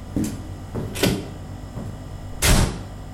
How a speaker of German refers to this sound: Der Vater wirft mit Schwung die Tür hinter sich zu und lässt seine Söhne stehen.